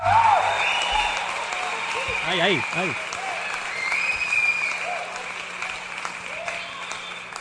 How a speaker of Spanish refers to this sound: pero en fin, un fuerte aplauso para nuestro nuevo piloto.